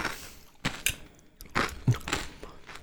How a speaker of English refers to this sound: recording this right before I go to work. And I'm eating yogurt.